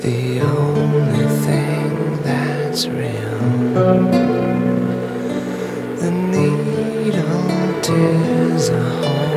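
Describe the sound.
An industrial rock song plays loudly and continuously, with a brooding male vocal singing over sustained, droning instruments and a thick, steady low end.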